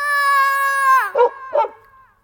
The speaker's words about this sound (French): Mais voilà Socrate, le chien des voisins, qui déboule en aboyant. Il fonce droit sur le chaton.